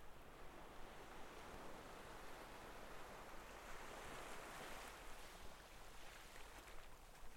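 A faint, steady wind rushes softly and continuously with no gusts or breaks, a low even hiss that holds the same level throughout, with no voices.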